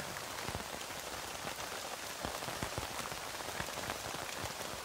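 Steady rain patters on a tent, a dense hiss broken by many sharp individual drop taps at an even, unchanging loudness throughout. No voices are present.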